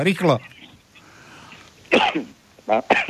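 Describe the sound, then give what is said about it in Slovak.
A quick spoken word, then a pause before a few harsh coughs in short bursts from a caller on a phone line, fairly loud, the last two coming in rapid succession. “Aha, korona. Fuj, korona! korona Daj si rúško”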